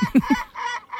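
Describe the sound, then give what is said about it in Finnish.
A great black-backed gull calls: three quick, deep barking notes in a row, followed by two longer, harsher drawn-out cries, loud and clear with no talking. “Mut siis lokki kuulostaa tältä. Tämä on siis merilokki.”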